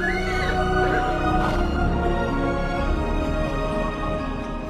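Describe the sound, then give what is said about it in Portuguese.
A horse neighs loudly, a long shaky whinny rising and falling over a steady background of rustling and low rumble, with no speech. “Martinho parou o cavalo para ajudar aquele pobre homem que tremia de frio.”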